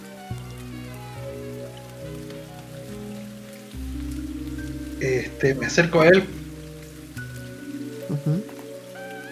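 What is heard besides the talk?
rain falling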